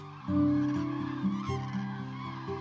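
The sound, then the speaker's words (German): A flock of wintering northern geese honking steadily, many overlapping calls blending into a dense, continuous chorus that sounds fairly loud, with no talking. “Im Winter kommen jedes Jahr Zehntausende nordischer Gänse und hunderte Sing- und Hockerschwäne”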